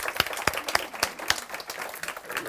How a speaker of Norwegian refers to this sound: Da gir vi en applaus.